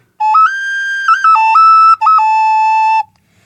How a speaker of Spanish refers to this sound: Qué bellísimo. Una, una flauta sencilla de barro.